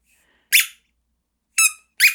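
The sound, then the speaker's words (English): Three sharp, high-pitched squeaks from a squeaky toy being chewed by a whippet puppy, one alone and then a quick pair, loud, with silence between and no talking. “Are you still squeaking the squeaker?”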